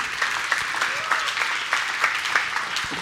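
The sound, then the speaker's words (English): Steady applause from an audience, a dense patter of many hands clapping at an even, moderate level for a few seconds with no voices over it. “You know, it's, uh, and yeah, go ahead and clap. You did a good job.”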